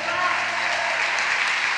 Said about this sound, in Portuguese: Dá um forte aplauso a Ele.